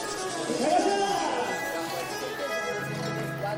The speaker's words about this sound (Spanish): Oye, están tocando vallenato. En la calle, sí, allí están. En la esquina, justo enfrente a mí.